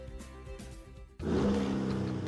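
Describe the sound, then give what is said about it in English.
A 2023 Chevy Silverado pickup truck's turbo high-output engine idles with a low rumble, then abruptly roars into a loud, rising rev that holds strong to the end, with no voices. “That's the sound of the 2023 Chevy Silverado's turbo high output engine, delivering impressive power with no compromised durability.”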